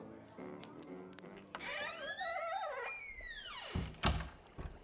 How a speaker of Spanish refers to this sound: La puerta del Cid Enchanteur se cerró a nuestras espaldas.